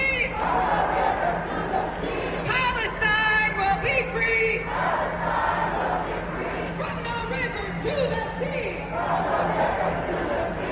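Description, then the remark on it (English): A large protest crowd at a demonstration chants the slogan "From the river to the sea" in unison, the loud rhythmic phrases rising in repeated waves over a constant roar of chatter and shouting. “Uh, a chorus of that that they've now memorized uh, from demonstration to demonstration.”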